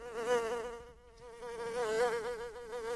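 A close, steady buzzing of flies, the whine wavering in pitch as they circle, with a brief dip near the middle before the drone swells again.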